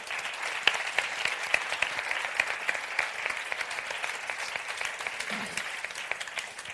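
An audience claps steadily for several seconds, a dense, even patter of many hands at a fairly constant level, with no voices standing out.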